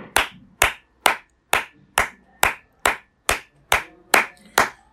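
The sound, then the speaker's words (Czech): A single person claps hands steadily, about eleven sharp, loud claps at an even, moderate rhythm, each crisp and bright with a quick decay, with no talking. “Já tleskám. Já tleskám.”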